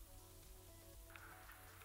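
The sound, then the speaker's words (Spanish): Steady rain falls in a soft, continuous hiss, with a low background hum underneath and a few brighter patters near the end. No one speaks. “La lluvia parece no ceder, mientras él continúa su camino.”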